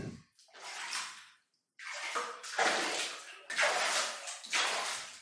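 Thermal water gushes into a bathtub, filling it from below, in several strong, hissing surges separated by brief pauses, fairly loud, with no voices.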